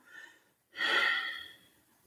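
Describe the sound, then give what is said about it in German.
A soft, brief intake of breath, a short pause, then one long, slow, airy exhale that swells and gradually fades, a person regulating their breathing to calm down, with no talking. “Und wenn man das mit dem Atem reguliert und einfach mal”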